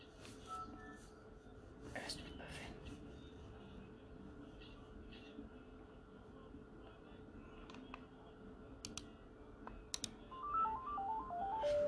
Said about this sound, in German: Ups. Kurze Pause. So, war nur kurz Telefon.